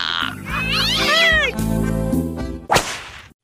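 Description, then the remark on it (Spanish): A pet cat lets out a long, wavering yowl, then shorter meows, fairly loud over a steady low hum, ending with a sharp swishing burst. “Es mi gatito, no piense que estoy invocando al diablo.”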